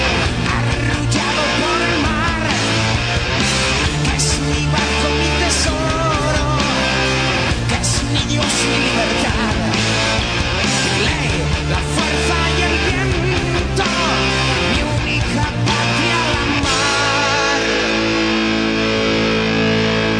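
A loud, dense Spanish heavy metal song plays throughout, with driving distorted guitars, pounding drums and strained, shouted-sounding vocals over a steady, unbroken wall of sound.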